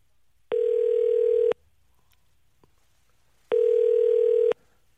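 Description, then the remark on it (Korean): A telephone ringback tone from a KBS holiday live broadcast calling a reporter at the Jayang-dong traditional market sounds twice, each steady electronic burst lasting about a second with a long silent gap between, the call going unanswered. No one speaks. “전화 안맞는거 보니까요. 자, 675 하나님 다시 한번 전화 걸어보겠습니다.”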